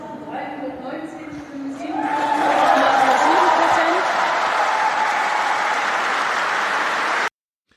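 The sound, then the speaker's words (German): A crowd bursts into loud cheering and sustained applause after the announcement of the first election result, in which Jadine Wissler won. The cheering rises sharply after a couple of seconds of murmuring voices, holds steady, then cuts off abruptly. “der Jubel war so, dass man gehört hat, okay, es war so ein, auch ein bisschen Erlösung dabei”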